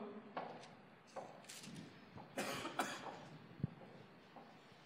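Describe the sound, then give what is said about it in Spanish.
A speaker overcome with emotion coughs in a run of harsh coughs in uneven bursts, several spasms over a few seconds with a throat-clearing quality, no talking in between. “Me emociono y me da tos.”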